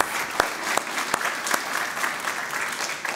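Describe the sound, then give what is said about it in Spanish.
An audience applauds God steadily during a Spanish-English sermon, dense clapping from many hands filling the whole span with a few sharper individual claps standing out, fairly loud and without talk. “Give him a strong applause.”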